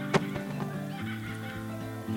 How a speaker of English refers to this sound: Momo heard a laugher. Who's laughing at me? he asked. It's a. Before Farah could say, Kookaburra!